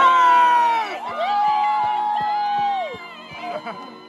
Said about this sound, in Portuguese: E quando começaram a gritar pelo segurança dela, ela ficou passada.